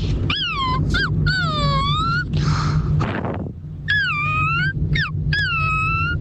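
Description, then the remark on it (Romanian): A person imitates a crying puppy, making high-pitched whimpering whines that slide downward in quick repeated bursts, broken once by a breathy huff before the whining resumes. “Ăsta e cățelul care plânge, da, băi!”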